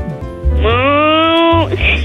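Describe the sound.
A child's voice imitates a cow, giving one sustained, slightly rising moo of about a second, fairly loud, with no other talk around it.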